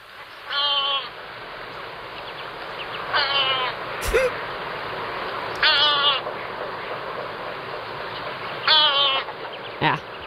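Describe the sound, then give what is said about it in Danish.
Lesser black-backed gull calls ring out in four separate bursts, each a short run of harsh, laughing notes, fairly loud over a steady background hiss, with a brief sharp click near the middle. “Vi kan også godt lige tage Silmo, når vi nu er i gang med de der Nå ja. større måger.”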